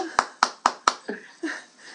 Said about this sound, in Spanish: Aplauden si les ha gustado. Claro que aplaudimos.